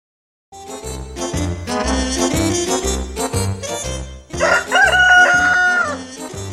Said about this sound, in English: a rooster crows, Cock a doodle doo!